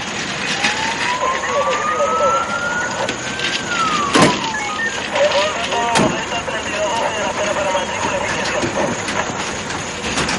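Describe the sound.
An ambulance siren wails once, rising slowly and then falling away, over a busy, noisy scene with indistinct background voices and a couple of sharp knocks, as ambulances pick up young people from inside a hermitage.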